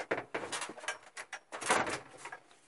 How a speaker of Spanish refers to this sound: Un momento, que voy a abrir. ¿Quién será? Sale. Se oye un sonido de llaves y de puerta que se abre. Y se cierra.